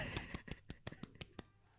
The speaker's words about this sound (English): so do, do yay hear, do you hear that do you hear that it's a tiny round of applause for massachusetts